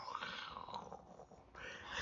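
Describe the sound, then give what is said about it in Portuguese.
A person growls and roars in a mock lion's roar, a rough, breathy voice rising and falling over about two seconds, fairly loud, swelling again at the end. “E só para lhe mostrar, eu vou transformar-me num leão.”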